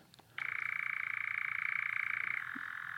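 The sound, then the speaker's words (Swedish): A European nightjar churrs alone in a steady, rapid mechanical trill lasting about two seconds, fairly loud, before cutting off abruptly into quiet background. “Men det är nattskäran.”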